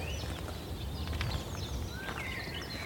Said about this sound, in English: And that lovely, in the background, everywhere, that sultry sound of song of blackbirds.